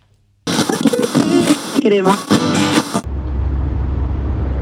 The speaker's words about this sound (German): Sorry erstmal die Verspätung, aber ich bin jetzt gerade im Auto unterwegs, da habe ich mal zwei Minuten Zeit.